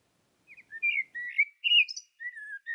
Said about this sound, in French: On a eu un merle qui nous a dit au revoir.